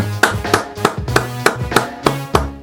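Steady rhythmic clapping from an audience welcoming a guest band, about nine sharp, evenly spaced, loud claps over a low sustained hum, with no talking.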